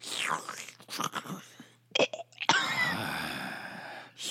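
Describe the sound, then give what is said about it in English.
A voice imitates a drawn-out moaning groan, fairly loud, preceded by a few short breathy vocal bursts and gasps. “do not groan like that.”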